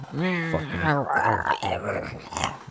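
A person vocally imitates a dog, producing loud growling and whining noises with wavering pitch that run continuously for a few seconds.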